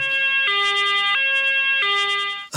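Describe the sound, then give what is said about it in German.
A two-tone siren alternates between a lower and higher pitch in a steady hi-lo pattern, loud, with a low hum underneath and no talking. “Und was Sie da jetzt hören, die, den Sirenenton und das Blaulicht, das Sie sehen, weist darauf hin, dass wir uns heute mit Kriminalität beschäftigen wollen.”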